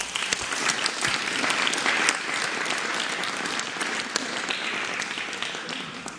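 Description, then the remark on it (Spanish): An audience applauds the teachers steadily for about six seconds, a dense, even wash of many hands clapping at a sustained, fairly loud level with no speech over it. “Bueno, un aplauso para las maestras y los maestros.”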